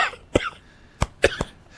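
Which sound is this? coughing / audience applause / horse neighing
coughing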